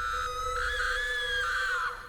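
A woman trapped inside a car, as a cow and a black dog smash at its windows, lets out a single loud, sustained, high-pitched scream of fear, holding for about two seconds with a slight rise in pitch before it breaks off and drops away.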